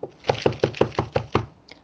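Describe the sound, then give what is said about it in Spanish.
A rapid, steady series of about eight hollow knocks on a door, clear, with no voices, ending in a short pause. “Alguien llamó a la puerta.”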